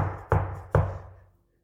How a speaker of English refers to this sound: And you realize and you feel that presence, and the door is open, and you see it's Jesus. He's right there on the other side of the door because I knocked